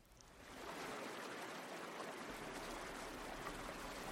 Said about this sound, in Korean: 그가 담배를 피우는 동안 나는 차창 밖으로 도랑을 바라봤다. 멀리서 물 흐르는 소리가 들렸다.